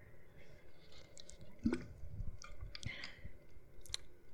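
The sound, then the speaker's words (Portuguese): Someone takes a few quiet sips of water, with soft wet mouth sounds, a gulp and small clicks of the lips and throat, no talking. “Peraí que eu vou beber água.”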